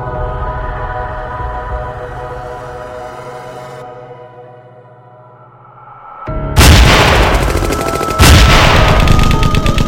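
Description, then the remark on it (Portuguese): A low, steady droning tone fades out, then loud, rapid machine-gun bursts erupt, with heavy mortar blasts punctuating the rattling fire until the end; night fighting by the Tenaru River, 20–21 August 1942, preceding a Japanese frontal attack on American positions. “Então o silêncio da noite foi quebrado por rajadas de metralhadoras e disparos de morteiros que antecediam o ataque frontal japonês contra as posições norte-americanas.”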